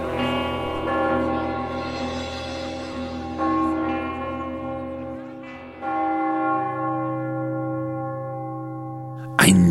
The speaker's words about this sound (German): Er hat nur den einen einzigen feierlichen Klang im Ohr, der dort von allen Türmen der Stadt so mahnend spricht. Er lauscht hinaus in die Nacht, bis der letzte Glockenklang verhallt.